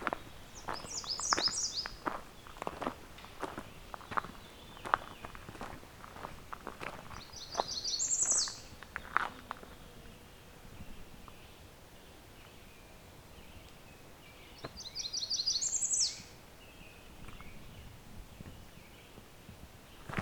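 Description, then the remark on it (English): An American redstart sings three short, high-pitched songs spaced several seconds apart, mimicking a Blackburnian warbler's song, over footsteps crunching through leaves. “So I got a redstart that's kind of mimicking the Blackburnian warbler song.”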